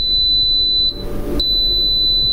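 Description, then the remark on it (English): A kitchen appliance beeping: a loud, sustained high-pitched electronic tone that breaks off briefly midway, then resumes, over a low background rumble with no talking. “It's beeping, which is they're- they want to make sure we hear enough of I beeps.”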